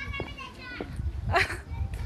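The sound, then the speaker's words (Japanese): Children's voices ring out across an open park, Miyagi Park, with several excited shouts and calls rising above a low outdoor rumble as they play. “何どうしたの子供たち水色組かな水色組青組じゃない青組かなんかえちっちゃいね楽しいね”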